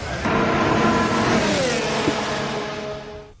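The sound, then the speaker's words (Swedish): A high-pitched V10 Formula One car engine screams loudly and steadily, its tone sliding downward as it passes, then fading away at the end. No voices accompany it. “Det är många som älskar V10-ljudet och, och, motorerna som användes på den tiden”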